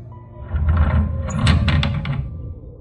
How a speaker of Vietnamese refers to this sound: Gió từ đâu đột nhiên thổi mạnh Khiến cho một cánh cửa sổ của nhà trường làng bung ra Tiếng gió lùa vào bên trong giống như là người đang gào khóc vậy